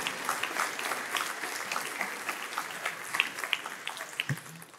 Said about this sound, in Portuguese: Você pode aplaudir igual, porque ó, obrigado, meu velho.